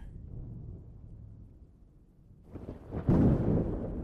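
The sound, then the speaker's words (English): Low, steady rumbling builds into a loud, booming thunderclap about three seconds in, then rolls on heavily. No voices, just the deep roar of a storm. “As the thunder brings you peace, brings you clarity”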